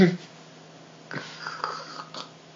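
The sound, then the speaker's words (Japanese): A voice imitates snoring with a few short, breathy snorts and rasping inhales, spaced unevenly over about a second after a quiet start. “そうそういびきはねちょっとかき出し書き出したなって思ったらあの寝言を言う違う違う頭をね頭のねと枕の関係をね 関係あのクイクイってしたらね治るっていうことをねもう気づいてるからねしてあげるの”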